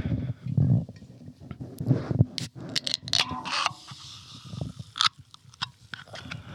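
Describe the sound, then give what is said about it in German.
Someone drinks a Monster Ultra Red energy drink from a can right at the microphone, with wet gulps and mouth noises broken by a few sharp metallic clicks and scrapes. Nobody speaks. “was ihr hier hört, ist der Monster Ultra Red, der gerade im Mund”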